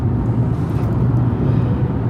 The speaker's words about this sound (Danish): nu er vi på vej tilbage fra, øh, fra Odense og sidder på motorvejen igen.